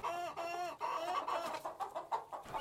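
Many chickens cluck and chatter at once inside the hatchery of Göransson's hen farm, with rows of nesting boxes: a dense, continuous layer of overlapping mid-pitched calls with short rhythmic bursts, fairly loud and without any talking.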